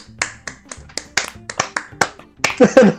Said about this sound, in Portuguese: Uma salva esse... de palmas. Palmas